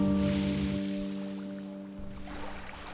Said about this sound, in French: Plus tard, en flottant sur la baie d'Along, parcourue de brumes comme un voile de fantôme, je pensais, hormis les flottements d'eau contre la coque en bois et le pétiment de la mousse quand le remous s'étire, le capter enfin.